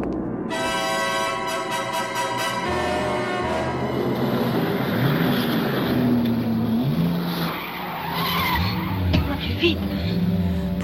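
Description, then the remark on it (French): A car, driven at night with its lights off, accelerates hard, its engine revving and roaring, then tires squeal and skid in long, wavering screeches as it takes turns without braking, loud and continuous throughout. “l'as du volant accélère brutalement, conduit la nuit à feu éteint, prend des virages sans freiner.”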